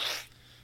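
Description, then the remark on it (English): A single quick sneeze, a short breathy burst that fades almost at once, fairly soft, with no talking around it. “Bless you.”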